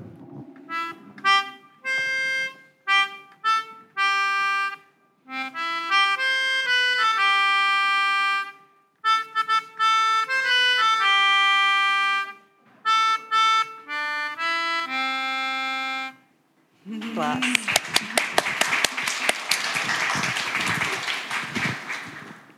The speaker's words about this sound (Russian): Вот это музыкальный инструмент называется пианика. Ну, то есть, как вы видите, я дую, то есть воздух попадает и нажимаю клавиши.